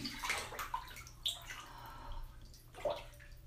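Shower water sprays and patters onto a woman's breasts in a steady, irregular splash, with small bursts of louder spattering. Fairly quiet, with no voices.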